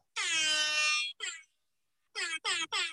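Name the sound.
air horn blast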